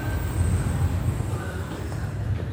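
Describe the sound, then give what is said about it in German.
Steady low rumble of a Berlin U8 underground train in motion beneath the Spree and Alexanderplatz toward Berlin-Mitte, heard from inside the car, with faint high-pitched whine and rattling, continuous and moderately loud throughout. “Am Cottbusser Tor nehmen wir die U-Bahn, die Linie U8 und fahren unter der Spree und dem Alexanderplatz entlang nach Norden, Richtung Berlin-Mitte.”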